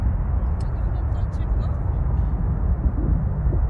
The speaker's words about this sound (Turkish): Uçak pas geçiyor. Bu motorların sesini de duymak mümkün burada.